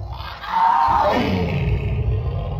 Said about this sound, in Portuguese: assustou, assustou o capeta mistura de choro de gato com rugido de leão.